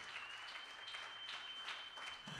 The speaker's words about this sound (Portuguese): Damos um aplauso ao Senhor por Sua palavra.